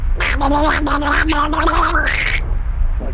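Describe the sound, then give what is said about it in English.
A voice imitates the cartoon duck Donald Duck, letting out a rapid, garbled stream of raspy squawking noises for about two seconds, loud, followed by a brief quiet breath. “crazy Donald Duck noises, and outbursts in like a like a torrent of flames.”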